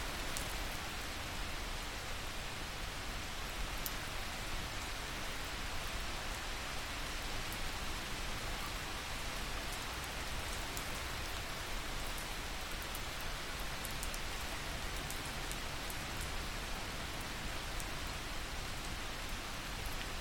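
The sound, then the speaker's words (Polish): Steady rain falls continuously, a dense, even hiss of drops pattering on a surface with occasional sharper ticks, holding at a constant moderate level throughout with no voices. “Wsłuchując się jeszcze przez chwilę w dźwięki deszczu, weź wolny, cichy wdech i wypuszczając powietrze, powoli otwórz oczy.”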